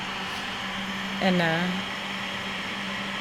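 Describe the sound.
A coffee roaster's gas burner warms up before roasting beans at the Het Baken coffee roastery on Vlieland: a steady, low roar running evenly throughout, with a constant hum underneath. A voice briefly hesitates partway through, over the continuous noise.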